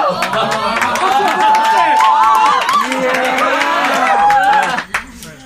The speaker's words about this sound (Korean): 박수! 박수!